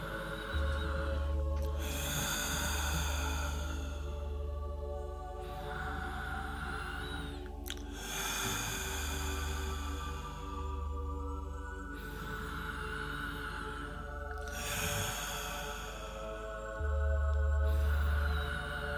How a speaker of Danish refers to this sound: Så lad din opmærksomhed følge dit åndedræt, når det går fra toppen af dit hoved hele vejen ned gennem din struktur, eller det felt, som er din krop, og når du ånder ud, giver du bare slip og lad luften komme ud gennem munden.